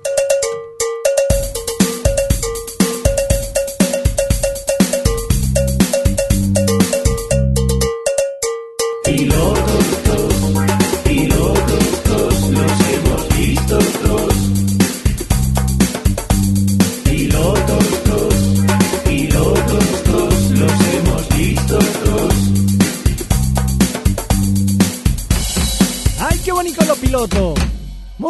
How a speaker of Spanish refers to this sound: Venga, pues vamos a poner el bonito indicativo y empezamos a saco.